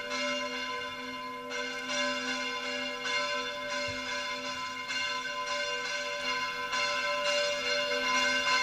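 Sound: church bells ringing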